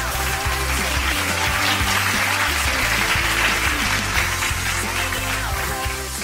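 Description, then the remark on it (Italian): Steady, dense applause from many hands, a loud continuous patter lasting several seconds, with a low musical bass line stepping along underneath. “io per questa cosa che scrivi ti faccio un bel applauso.”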